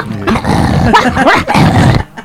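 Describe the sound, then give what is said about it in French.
Boxer dogs at a dog competition growling and snarling loudly, a continuous rough rumble with rising, tearing bursts for about two seconds, then a sudden stop. “Ah non, ça c'est un autre un autre concours, ça c'est des boxers.”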